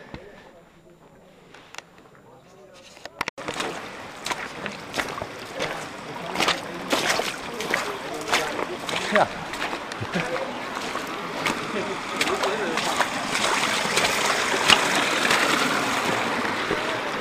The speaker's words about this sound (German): wir können durch das Wasser gehen, ganz nah am Toten Meer. Hm, jetzt bin ich ja ganz nass.